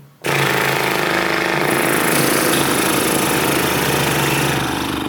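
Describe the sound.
A loud, sustained lip trill done as a singing warm-up exercise, like a horse snorting after a race, with lips buzzing in a steady, rumbling flutter for about five seconds before easing off slightly at the end; no talking.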